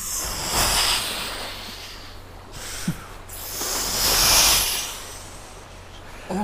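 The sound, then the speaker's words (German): Someone makes breathy, hissing whooshes with their mouth to imitate the rushing sea, the surges swelling and fading in a slow rhythm, with no talking. “Mach mal hier ein Meer rauschen.”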